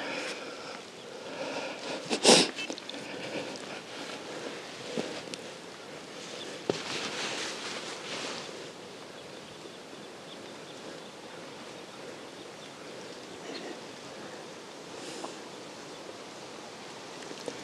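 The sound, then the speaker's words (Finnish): Quiet forest ambience on a rainy day with a steady, soft rushing hiss throughout, broken by a brief sharp call early on and a few faint scattered sounds; no one speaks. “Kuunnellaanpa vähän tätä metsää.”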